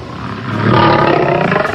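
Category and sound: animal, lion roaring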